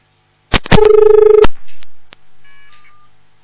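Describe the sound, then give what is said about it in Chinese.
Telephone line tones from a dropped call: a sharp click, then a buzzy, steady electronic tone for about a second, followed by scattered short beeps and a faint higher tone, with no voices. “还没打，把人家电话都卡掉了。”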